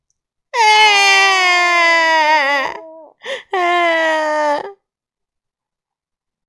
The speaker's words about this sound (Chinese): 虎宝宝的哭声在丛林里回响，他不想要别的玩偶，他只要自己的那一个。